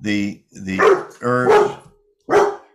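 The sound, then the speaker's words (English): A dog barks loudly, letting out four sharp, throaty barks in an uneven rhythm, with a short pause before the last one. “That's my dog Scout, one of two.”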